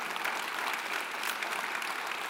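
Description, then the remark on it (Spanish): A church audience applauds Christ during a Spanish-language sermon, a steady, dense wash of many hands clapping at an even, sustained loudness throughout, with no voices standing out above it. “Si usted lo que levanta un aplauso a Cristo si usted ha sido restaurado.”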